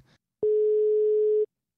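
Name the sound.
phone call ringing tone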